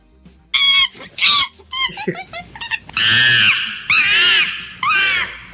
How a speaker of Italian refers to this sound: Allora, Pratele da 1 a 5 abbiamo un bel 3, quindi una scimpanzé abbastanza incazzato. Siamo sul 3 anche appunto per la scimmia.